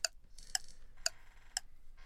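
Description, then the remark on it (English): A ticking clock timer: sharp, crisp ticks land at a steady pace about twice per second, clear with a faint ringing tail between beats, and no voices. “start the clock.”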